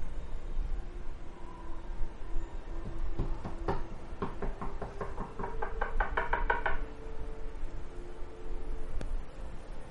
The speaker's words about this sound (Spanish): obviamente la esposa de mi amigo se levanta y le dice, oye, alguien está tocando la puerta.